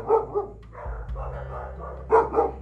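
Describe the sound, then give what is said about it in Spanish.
A female pet dog barks right beside the speaker at night in two quick pairs, sharp yappy barks separated by a pause filled with low background hum; no voices are heard. “Es mi perra que está ladrando al lado mío.”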